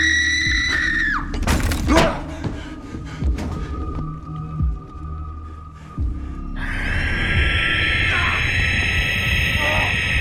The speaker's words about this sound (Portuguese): o som que a rasga mortalha faz ao cruzar os céus. Dizem que é tão estridente que parece o rasgar de um tecido. No caso, o tecido que cobre os cadáveres. A mortalha, por isso seu nome.